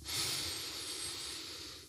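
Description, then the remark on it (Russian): A slow, deep breath in, a steady airy hiss that swells early and then gently fades over about two seconds, with no talking. “Просто дыши. Вдох.”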